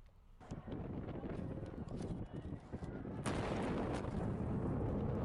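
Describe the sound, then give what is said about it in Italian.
Heavy, rumbling blasts of bombs exploding in a war, a continuous low roar with a few sharper booms, one louder surge midway. The sound is blustery. “Quello che sentite è il suono delle bombe, è il suono di una guerra dimenticata, di un conflitto di cui non si parla,”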